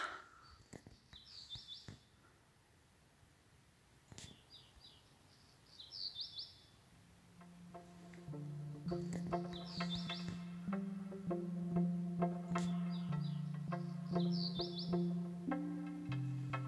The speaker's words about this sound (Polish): no i usłyszałam, że ptaki śpiewają. I postanowiłam nagrać, bo mi nie uwierzycie. Nie wiem, to skowronek chyba. Tak śpiewa.